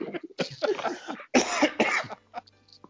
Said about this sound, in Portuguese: Nossa, até a tosse voltou.